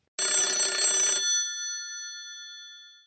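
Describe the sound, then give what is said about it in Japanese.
A telephone bell rings loudly in a single burst of about a second before an answering machine message, then its bright metallic tones hang and slowly fade out. No voices are heard. “今日も留守番電話が入っていますえこの番組ではお店を経営されている方からの PR メッセージが留守番電話という形で届きますそれでは聞いてみましょう”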